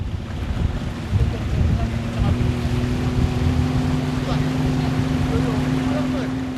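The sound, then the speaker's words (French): A small motorboat, a shell barely 2 metres long, drones steadily on the water on the way to Narikoso village on Ono Island, Kandavu archipelago, southern Fiji: a constant low engine hum with wind buffeting the microphone and splashing water around it, fairly loud throughout. “Pour rejoindre le village de Narikoso sur l'île d'Ono, dans l'archipel de Kandavu, au sud des îles Fidji, il faut prendre un petit bateau à moteur, une coquille de 2 mètres à peine où l'on cale son sac à dos entre deux bidons d'essence.”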